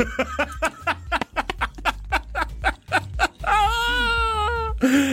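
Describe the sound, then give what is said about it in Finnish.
A child cries out in a series of rapid, sobbing bursts, then lets out a long, high, wavering wail before a final sharp cry. It is loud, with no talking. “niin kuuluu ääni, niin kun se huutaa siellä.”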